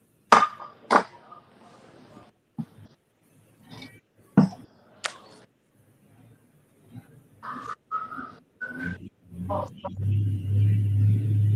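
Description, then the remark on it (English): Scattered sharp clicks and thumps with a few brief tonal chirps, then a loud, deep engine roar builds and holds in the closing seconds as a pulling tractor, the dad's tractor Bulletproof Buck, makes a test pass, pulling hard at full power. “Yeah, brother made a test pass on the dad's tractor bulletproof buck.”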